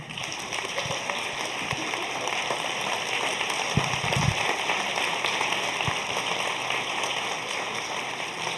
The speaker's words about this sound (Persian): لطفا تشویق بفرمایید جناب آقای اسماعیل باستانی رو